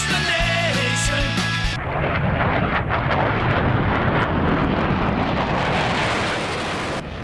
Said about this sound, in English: And of course, I forgot that there's like a jet sound there.